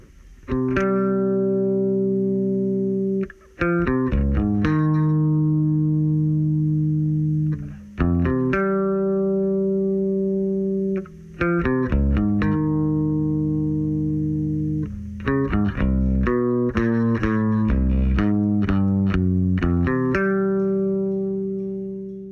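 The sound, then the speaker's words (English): An electric bass guitar plays alone in a rock song's interlude, a steady line of sustained, slightly gritty low notes moving in short rhythmic phrases with brief gaps between them, fairly loud, with no voices. “Let's just listen to …'s bass part.”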